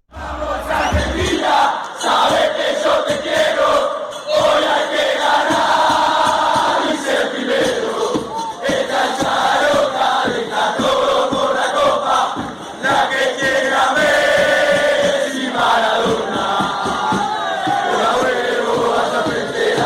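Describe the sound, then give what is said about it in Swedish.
A large crowd of Argentine football supporters sings chants together, a loud, continuous wall of massed voices with rhythmic, melodic phrasing that holds steady throughout. “berättade om eh, att Argentina driver supportersångerna i världen.”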